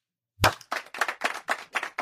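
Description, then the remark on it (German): A sharp, close hand clap rings out, followed by a steady run of quick claps, roughly four per second, loud and dry with no voices. “Also genau, also wir, also wir klatschen jetzt in drei, zwei, eins.”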